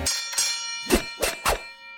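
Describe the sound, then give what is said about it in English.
Bright bells ring out in a short festive Christmas tune, five quick strikes in an uneven rhythm over a sustained shimmering tone. Moderately loud, with no voices. “But do I hear holiday music? Oh, you do.”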